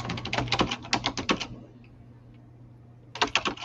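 Rapid, hard keyboard typing in a fast burst of clacking keystrokes, then a brief pause before another quick flurry starts up. A low steady hum sits underneath.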